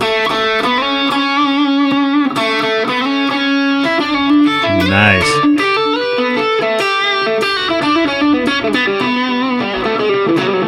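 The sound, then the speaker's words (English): A crunchy, overdriven electric guitar played through a Marshall amplifier with an Analog Man KOT gain pedal kicked on, playing a sustained melodic line, notes ringing and singing with harmonic richness, steady and loud throughout, with a brief spoken word near the middle. “It's more of a crunch thing. And then I just kick on the pedal.”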